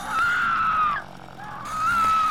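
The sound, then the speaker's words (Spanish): Two loud, sustained high-pitched screams in the style of a horror film, separated by a brief drop in intensity, with the second rising again and holding near the end. “Tú gritas, te tapas los ojos de horror, pero no puedes dejar de mirar.”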